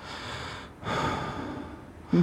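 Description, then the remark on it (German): A voice imitates a dog's panting heard right next to one's ear while sleeping in bed: two breathy, noisy huffs, a short one then a longer sustained one, ending with a brief voiced sound. “Und da hat es dann richtig angefangen, dass spukiger wird, dass sie wirklich dann Kratzen gehört kaputt an der Tier oder eben das Hecheln direkt. Du schlafst im Bett und auf mhm. einmal hörst neben dir, neben einem Ohr so”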